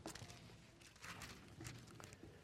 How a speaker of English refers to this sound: Genesis chapter 22. I hear pages turning. I love it.